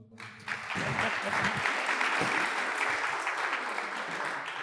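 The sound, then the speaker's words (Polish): Steady, dense applause from an audience welcoming the speakers at a discussion on football coaching in Poland, rising quickly and holding at a strong level for several seconds, with a faint murmur of voices underneath. “przede wszystkim zacznijmy może od braw dla prelegentów, którzy tutaj przyjechali, żeby podyskutować o szkoleniu o futbolu.”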